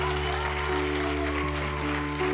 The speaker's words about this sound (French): est-ce qu'on peut l'applaudir chaleureusement?